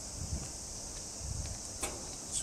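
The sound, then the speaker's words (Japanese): A steady, high-pitched cicada drone hums over a soft, continuous wash of running stream water, with faint low thumps now and then. Quiet, ambient and without any voices. “だからまあ自分で作るかそれとも今みたいに本当背景の 川のせさらぎとかセミの音を鳴すしかないぞみたいな感じですよね”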